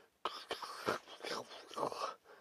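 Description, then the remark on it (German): Soft, irregular crackling in a forest, like twigs snapping and leaves rustling, with several sharp little snaps over a continuous dry rustle, fairly quiet. “ein Knistern.”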